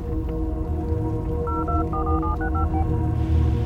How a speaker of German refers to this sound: Pepe wählt Evas Telefonnummer immer und immer wieder. Doch es kommt kein Freiton. Der Anruf wird offensichtlich nicht durchgestellt.